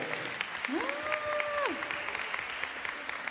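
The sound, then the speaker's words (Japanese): Steady applause from a large audience welcoming the guest of honor and students onto the stage, a dense crackle of many hands clapping continuously, with a brief rising-and-falling tonal sweep heard near the middle. “大きな拍手をお迎えくださいどうぞ”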